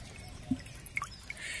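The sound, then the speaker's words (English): Gentle trickling water of a small stream, with a few soft bubbling plops and a brighter babble rising toward the end. It is fairly quiet, with no voices. “Diva collapsed by a small stream and dipped her toes in the cool water.”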